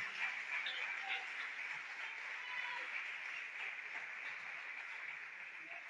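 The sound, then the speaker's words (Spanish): An audience applauds God, the one who lifts them up despite their mistakes, in a steady, dense wash of clapping that holds for several seconds without a break, mixed with a faint murmur of voices. “Otra vez, dele un aplauso a aquel que nos levanta a pesar de nuestros errores.”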